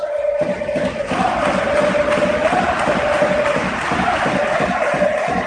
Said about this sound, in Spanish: Fallando el lanzamiento, pero sacando la falta personal Luca Doncic. Y el Palacio que Aplaude la acción de Luca Doncic.